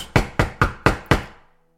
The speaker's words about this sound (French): Dans la nuit, vers trois heures du matin, il entend des coups à la porte.